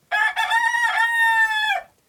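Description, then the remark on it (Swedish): A single rooster crows loudly, one drawn-out cock-a-doodle-doo lasting under two seconds, with a strained, rising-then-falling pitch and no other sounds around it. “Okej, okay. en kyckling. Eller tupp, kanske något åt det hållet.”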